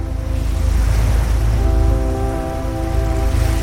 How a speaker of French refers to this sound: Et vous entendez le bruit des bateaux, des tankers énormes que vous voyez devant vous en ce moment. Vous entendez le ronronnement, vous entendez les grues qui s'activent l'arrivée et le départ de tous ces conteneurs que vous pouvez voir au fond.